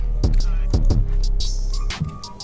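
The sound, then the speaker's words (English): Computer keyboard clicking from fast typing: a handful of sharp taps in small irregular bursts over a steady low background hum, with a couple of fainter clicks trailing off. “Damn, you hear the computer clicking?”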